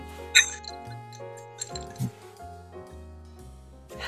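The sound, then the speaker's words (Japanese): Drinking glasses clink once, bright, near the start of a toast, with soft background music playing steadily underneath and a faint murmur afterward. “じゃあ乾杯しようかお願いします。はい、じゃあ乾杯。”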